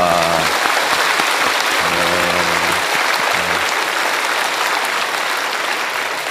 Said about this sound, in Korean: 우리 경배와 찬양팀 또 찬양대를 통하여서 또 여러분들의 회중 찬양을 통하여서 우리 하나님 앞에 귀한 영광의 박수를 다시 한번 올려드립니다.